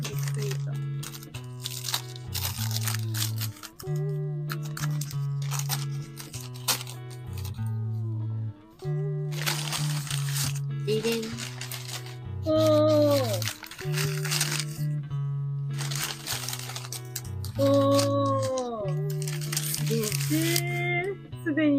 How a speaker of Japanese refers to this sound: あ、さつまいも開けようか。うん。この緑色のテープ。